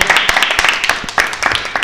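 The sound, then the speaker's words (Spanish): A short burst of applause, many hands clapping in a dense, irregular patter at steady loudness for about two seconds, with no one talking over it. “Aplauso.”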